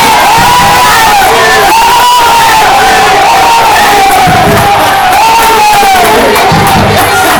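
Loud, continuous shouting from several children, high-pitched voices rising and falling in long overlapping yells for the whole stretch, with no quiet gaps.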